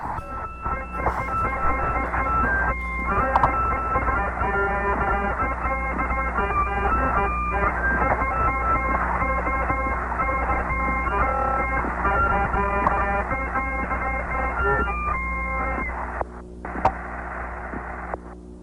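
A small eight-tone harmonica, brought aboard a spacecraft by astronaut Wally Schirra, plays a simple melody over the radio link to mission control in Houston: a narrow, crackly channel with a constant low hum and static underneath, lasting nearly twenty seconds without any talking.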